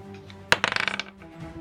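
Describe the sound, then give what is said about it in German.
A die is rolled again as a reroll in a game, tossed onto a hard surface and landing on 12: one sharp impact followed by a quick run of rattling clicks that die away within half a second, alone, with no voices. “aber der Reroll, also nochmal würfeln, geht nur, wenn man den eigen, also nur für sich selbst.”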